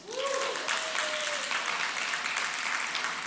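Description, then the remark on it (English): An audience breaks into steady, dense applause for a sign-language interpreter, with a brief high whistle-like tone near the start as the clapping swells and continues at full volume. “Let's give it up for Jessica.”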